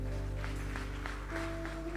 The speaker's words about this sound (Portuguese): Você recebe essa palavra, aplauda o Senhor, meu irmão.